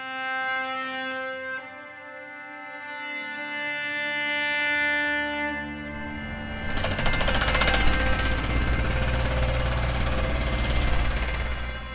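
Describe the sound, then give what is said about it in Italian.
Heavy jackhammer drilling on a construction site, a rapid continuous pounding that grows louder and harsher midway, joined by the steady drone of machinery with no one speaking. “Cantiere è la parola chiave di questo episodio.”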